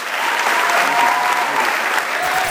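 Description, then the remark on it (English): A crowd at Mount Aloysius College applauds student athletes steadily, a dense wash of many hands clapping at once, loud and sustained from start to finish without any voices breaking through. “Give yourselves one more round of applause.”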